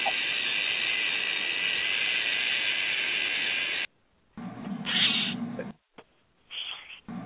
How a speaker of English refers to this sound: those are my those are my gecko screaming sound effects. Yeah, that was. I was sitting here going, okay, I know this sound because I hear it every time we walk past that the That sounds real familiar.